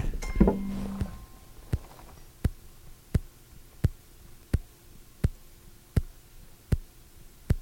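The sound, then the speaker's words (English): Crisp, metallic ticking of a titanium mechanical heart valve picked up by a microphone placed on the chest, about nine evenly spaced clicks in a steady, metronome-like rhythm, following a brief burst of rustling handling noise. “It's not a watch. It's my heartbeat.”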